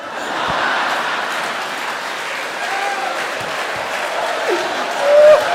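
An audience claps steadily for several seconds, a dense, even wash of applause with faint scattered voices mixed in, swelling slightly louder just before it ends.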